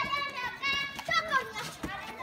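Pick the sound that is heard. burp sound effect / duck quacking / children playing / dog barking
children playing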